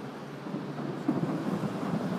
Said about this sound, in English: That night, fireworks rang out over cities all across Russia. It was a holiday I'd almost forgotten.